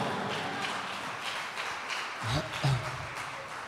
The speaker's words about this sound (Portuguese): Deus está ao seu lado, e se você crê nisso, aplauda ao Senhor Jesus bem alto.